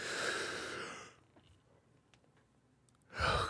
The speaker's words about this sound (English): I'm going to be yawning for whatever reason. I'll just be over here being yawny.